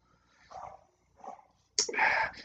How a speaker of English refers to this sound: Jesus Christ, why the fucking dog's barking back now?